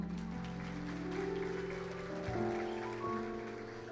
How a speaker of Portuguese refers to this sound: Você pode aplaudir ao Senhor?